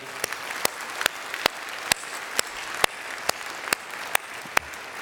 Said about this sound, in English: Just wave your hands over there if you would, family. Wave your hands. Let's give the round of applause and support.